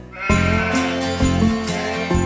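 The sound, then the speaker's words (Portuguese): Several sheep bleat loudly and close by, their wavering calls overlapping in a steady run of bleats with no pauses between them. “Um dia eu estava caminhando com as minhas 100 ovelhas e uma delas sumiu.”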